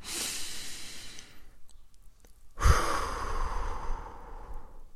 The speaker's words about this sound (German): Ganz tief ein in den Brustkorb und ganz lang aus durch den Mund.